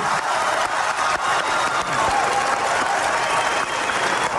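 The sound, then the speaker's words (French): Sustained, dense applause at the closing of the COP 21 climate conference in Paris in 2015, after Laurent Fabius's gavel strike adopting the Paris climate agreement: a steady roar of many hands clapping at once that stays loud and even for the whole stretch, with no voices standing out. “Vous vous souvenez de l'enthousiasme à la clôture de la COP 21 à Paris en 2015, avec ce célèbre coup de marteau de Laurent Fabius.”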